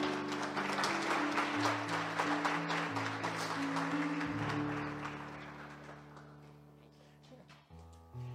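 An audience bursts into dense, steady applause that holds strong for several seconds, then thins out and fades, with sustained low musical chords playing underneath throughout.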